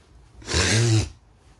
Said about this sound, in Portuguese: Meu Deus, porque eu tô espirrando tanto. Deixa eu abrir essa janela.